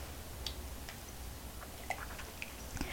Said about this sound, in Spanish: Voy con el primer sorbito del día.